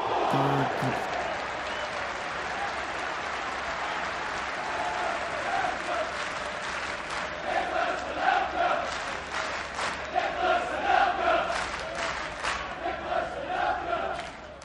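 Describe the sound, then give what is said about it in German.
A big stadium crowd roars and cheers in a continuous, dense wash of noise, with swells of shouting and bursts of clapping building louder toward the end, as when a Mexican wave sweeps past. “Laola-Wellen und Vuvuzelas kommen hier rein.”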